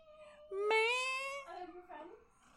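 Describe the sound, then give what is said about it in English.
A cat wanting to come in gives a long, drawn-out meow, rising and then holding steady, followed by softer, wavering vocal sounds that trail off. “Oh, hello, Miss Kitty. Oh, it's fine. Oh, she wanted to come in.”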